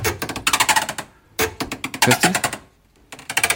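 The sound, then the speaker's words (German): A refrigerator door squeaks with rapid, chattering creaks in three loud bursts as it swings open and shut, a sound oddly like a dolphin's clicks. A voice briefly speaks between them. “Mach den Kühlschrank auf und zu.”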